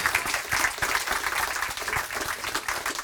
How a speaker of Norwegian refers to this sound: Applaus igjen.